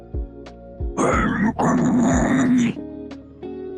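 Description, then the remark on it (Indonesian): A harsh, guttural deathcore-style growl, a real unedited vocal recording made about a year earlier, rips out in two loud, raspy bursts, the second longer and sustained, with low thumping beats around it. “Oh, karena lu suka scream-scream gitu.”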